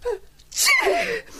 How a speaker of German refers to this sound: Gesundheit.